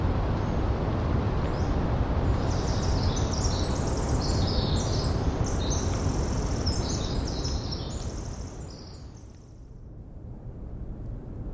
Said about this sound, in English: These sounds of the Oregon coast and the Eastern Washington Dawn Chorus were recorded by Gordon Hempton, the sound tracker, and co founder of Quiet Parks International.